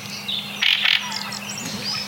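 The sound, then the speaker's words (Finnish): A thrush gives a couple of sharp, bright calls very close to the microphone, followed by softer scattered chirps and whistles, with a faint low hum running underneath throughout. “Ja rastas. korostaa itseään.”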